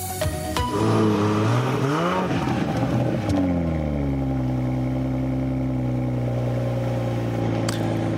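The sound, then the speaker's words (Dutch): A powerful Toyota GR Supra 340 hp inline-six car engine revs hard, pitch sweeping up and down in quick bursts, then settles into a steady, deep idle. Loud, no voices. “Het is een Zes in lijn motor, 340 pk. Het geluid van de Toyota GR Supra.”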